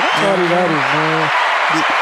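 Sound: clapping applause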